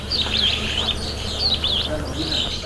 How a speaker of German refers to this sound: In dem alten Backsteinbau sind nur ein paar Vögel zu hören, sonst ist es still. Gottesdienste gibt es hier schon lange nicht mehr.